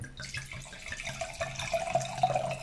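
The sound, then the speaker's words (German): Wine glugs and splashes as it is poured from a screw-cap bottle into a violet wine glass, a bright liquid gurgle with a rising pitch as the glass fills, clear with no talking. “Es ist jetzt schade, dass es mit Schraubverschluss Ja, sonst hätten wir, wir jetzt gerne euch das Blog natürlich präsentiert. Wir haben es einschränken, klingt wenigstens schön.”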